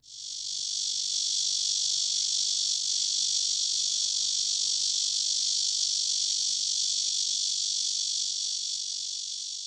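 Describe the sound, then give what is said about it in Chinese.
A red-veined cicada's song: one loud, steady, high-pitched mechanical buzz that swells in within the first second and then holds unbroken to the end, with no voices. Its pitch is slightly lower than that of the similar-sounding Taiwan cicada. “再来，这个是红脉雄蝉的叫声。”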